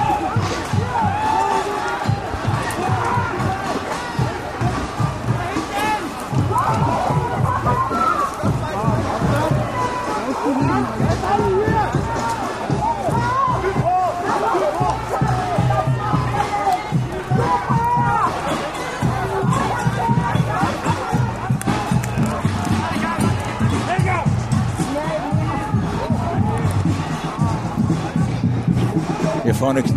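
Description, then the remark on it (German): A loud crowd commotion as protesters scuffle with police on railway tracks, police pushing the demonstrators back down: many overlapping shouting voices and scattered thuds, dense and continuous for the whole stretch with no quiet moments. “Jetzt haben die Polizisten doch wieder teilweise die Demonstranten runtergedrängt.”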